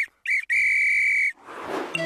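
whistle blown

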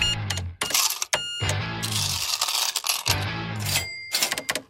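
coins clinking

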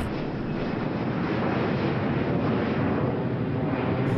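airplane flying overhead

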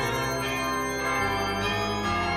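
church bells ringing

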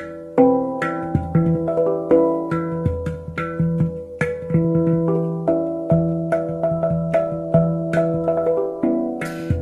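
handpan being played

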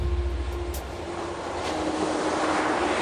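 sea waves

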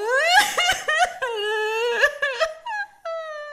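girl crying and wailing

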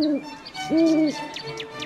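owl hooting

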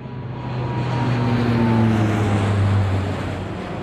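airplane passing overhead

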